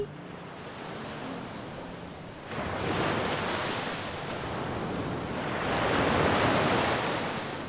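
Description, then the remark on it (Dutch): Sea waves break and wash onto the shore in broad, hissing surges, swelling at about three seconds and again near six, with steady wind blowing across the microphone. No one speaks. “Ik ging naar de zee äh, lopen. En wat deed je dan? Mooie sound voor mij.”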